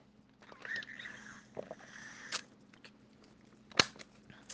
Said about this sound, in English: And I just got like thirsty, so I'm gonna just take a sip of water real quick.